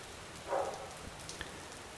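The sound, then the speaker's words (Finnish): Steady rain falls at a farm, pattering down in a continuous hiss, with a few louder drops splashing and a brief swell of dripping around the middle. “Koira haukkuu, taivalta sataa vettä.”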